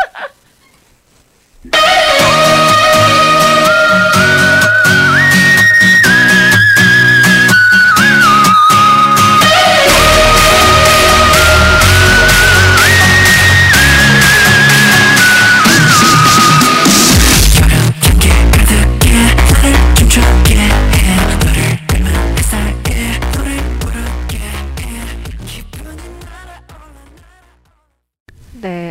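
A bright K-pop song with a melodic lead line over a dense, driving backing track plays loudly and steadily, then gradually fades out in the final seconds.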